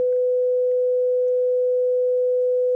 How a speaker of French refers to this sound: Puis la stridence du faisceau de communication rompu.